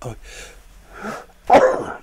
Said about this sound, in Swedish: Nu kommer jag nysa när som helst.